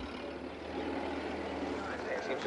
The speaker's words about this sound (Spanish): Llega un coche con soldados. Ah, Oficiales y colonos acuden.